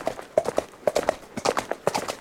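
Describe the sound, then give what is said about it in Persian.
Hooves of a horse being ridden away by Parizad clatter in a quick, uneven gallop, a steady run of sharp clip-clop strikes in repeating bursts, moderately loud, with no voices over them. “پریزادم سوار اسبش داشت دور میشد”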